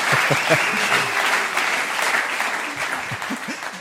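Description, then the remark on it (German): An audience applauds steadily, a dense wash of many hands clapping at an even loudness throughout, with a few brief vocal sounds mixed in. “Hier bekommt man Applaus.”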